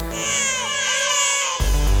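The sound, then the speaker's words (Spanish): A baby wails in one long, high, strained cry lasting well over a second, loud, then breaks off abruptly into a burst of noise. “Si tuviéramos que hacer que una inteligencia identifique el sonido de llanto de un bebé, tenemos que hacer que escuche miles de llantos de bebés.”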